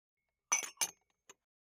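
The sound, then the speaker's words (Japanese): Plates clink together as they are set out for serving a meal: two bright, rattling knocks in quick succession, then a small lighter tick a moment later, with no talking. “ああお皿ありがとうございます適当に盛り付けておきますね”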